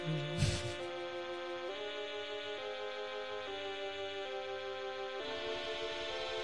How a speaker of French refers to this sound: L'instrument qu'on entend s'appelle le stylophone et ça se joue avec un stylo.